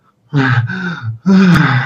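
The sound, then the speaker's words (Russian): A person demonstrates the desperate gasping breaths of hysterical dyspnea, struggling to inhale: a long strained voiced gasp, a brief pause, then a second loud, drawn-out gasp, with no other sounds. “И третий вид одышки есть, он так называемый, ну его по-разному называют, ну, это состояние, чувство комка, а, истерическая, истероидная одышка, да, когда человек хочет вдохнуть, да”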